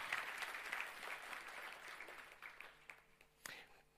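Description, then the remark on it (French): An audience applauds the Lord for his grace, a dense wash of many hands clapping steadily, fading toward the end with a few scattered claps, one sharp clap standing out near the finish. “Quelqu'un devrait dire Amen et applaudir le Seigneur pour sa grâce qui nous restaure.”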